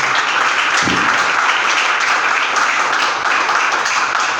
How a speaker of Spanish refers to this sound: Denle un aplauso a Jesús, por favor. Déselo a Él esta mañana.